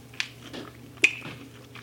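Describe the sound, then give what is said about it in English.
Quiet chewing of crunchy seasoned dough, with two sharp crisp crunches standing out about a second apart over soft mouth sounds and a low steady hum. “Well, the crunch of the dough is great.”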